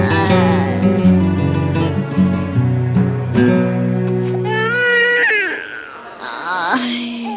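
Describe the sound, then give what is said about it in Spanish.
Sustained instrumental chords give way to a newborn baby girl's crying in a hospital, a few loud, wavering wails rising and falling in pitch near the end, with no one talking. “Otra niña, pucha, Puras mujeres tenemos.”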